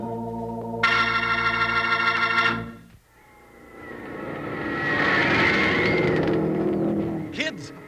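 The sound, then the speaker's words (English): Racing car engines at an auto race roar: a loud, high, steady whine for a couple of seconds cuts off, then another car's engine swells to a loud rushing roar and fades away. “Auto races are exciting, that's for sure.”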